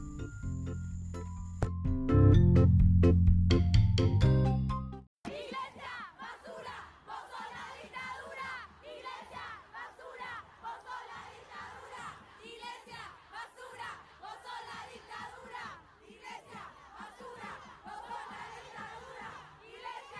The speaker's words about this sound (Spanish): Iglesia, basura, vos sos la dictadura. Pero la vamos a escuchar como la dicen en todas las marchas, o en muchas de ellas.